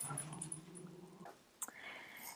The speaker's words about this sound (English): Sorry about that. The dog started barking.